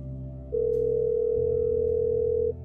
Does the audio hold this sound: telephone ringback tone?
yes